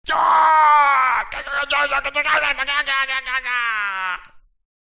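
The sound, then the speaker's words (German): A human voice imitates a goblin, hit in the thigh by an arrow and still holding its bow, whimpering in pain: a loud, strained, wavering moan about four seconds long that breaks into sobbing pulses midway, then sinks in pitch and trails off. “Er jammert und hat aber immer noch seinen Bogen in der Hand.”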